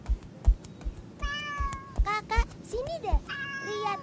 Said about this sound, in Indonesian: ada anak kucing lucu banget.